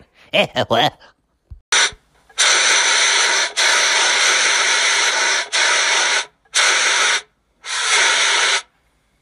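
A brief vocal sound, then an aerosol spray hisses in loud bursts: one long continuous spray followed by three shorter blasts with small pauses between them.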